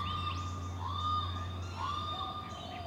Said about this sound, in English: The daytime bird songs were barely audible over the ambient city noise.